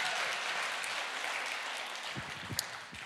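Audience applause: a dense, steady wash of many hands clapping, fairly loud throughout, with a few sharper individual claps near the end as it begins to taper off.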